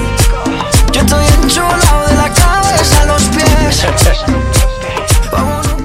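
A loud reggaeton track plays up close, a steady thumping kick pattern driving under layered synth melodies and vocal-like tones, with no one talking over it.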